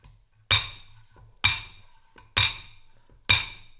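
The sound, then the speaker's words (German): Four sharp, ringing metallic clinks at an even pace, a weighted ball dropped four times onto an eggshell through an egg topper to break off the top, each tap bright with a brief decay. “Viermal, viermal lasse ich die Kugel drauf ra äh, rauschen und dann, zack, kommt einfach das Hauberl ab.”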